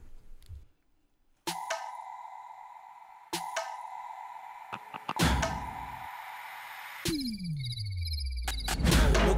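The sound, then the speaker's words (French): A music track opens with sharp electronic ping-like hits over a sustained synth tone, followed by a deep descending bass sweep and building layered synths; no voices. “On s'écoute tout de suite le titre … de … et …”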